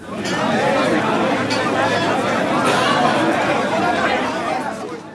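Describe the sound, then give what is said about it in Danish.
A dense crowd of many voices all shouting for attention at once in a public square, loud and continuous, with overlapping calls blending into a steady roar. “Det du hører her er lyden af sociale medier, hvor alle har taget en kasse med, de har stillet sig op på, på torvet, og de råber alle sammen efter din opmærksomhed.”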